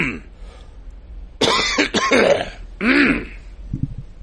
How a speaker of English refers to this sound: I am still suffering with a vicious cough. And, uh, yeah, quite honestly, I'm done hitting the pause button. so, you're just gonna get the coughs through the outro.